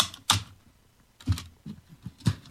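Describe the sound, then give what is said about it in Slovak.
Electronic gadgets being packed into a time capsule box: a handful of sharp, hard clacks and knocks land at uneven intervals, with quiet rustling between them and no voices. “Možno počujete, čo robím. Tak skladám sem elektroniku.”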